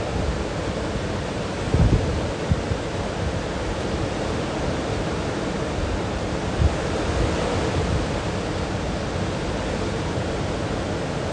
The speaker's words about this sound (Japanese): 海の波の瞑想終わりますぐっすりと眠れますように